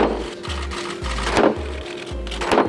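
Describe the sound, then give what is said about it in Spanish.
Three heavy hammer blows strike the Door of Forgiveness of the Monastery of Santo Toribio de Líbana in Cantabria, opening the jubilee year. They come at an unhurried pace, each a dull, resonant thud that rises over a steady, rhythmically pulsing low rumble in the background. “Así sonarán los tres golpes de martillo en la puerta del perdón.”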